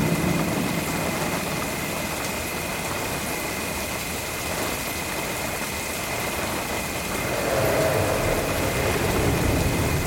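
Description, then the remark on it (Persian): A stuck car's engine idles steadily with a low rumble and a faint high whine, its steady hum filling the whole stretch, with no voices heard. “ماشین گیر کرد اه خدایا خسته شدیم به خدا”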